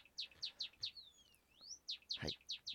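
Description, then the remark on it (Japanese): A pet Java sparrow chirps in quick, bright repeated notes, broken by a longer rising-and-falling whistled call, with a soft thump partway through; no one speaks. “今日も文鳥ちゃんは元気です”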